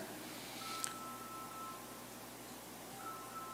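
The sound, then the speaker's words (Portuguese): A faint electronic alarm tone sounds, holding a steady pitch for over a second, pausing, then starting again over a soft hiss, with no one talking. “não é o meu não, tem algum alarme tocando aí, tem algum Pronto, resolvido.”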